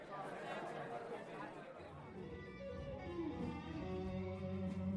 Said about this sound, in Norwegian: Inne på scenen er heldigvis lyden en litt annen. Salen fylles opp av nesten 800 publikummere og forestillinga begynner.